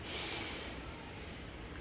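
A single deep breath drawn in through the nose, a soft, steady airy rush, lasting under two seconds with no talking.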